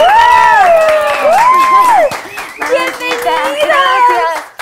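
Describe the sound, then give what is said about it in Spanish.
Steady clapping runs throughout while voices let out long rising and falling whoops and cheers, loud, with some shouting mixed into the applause. “aplauso!”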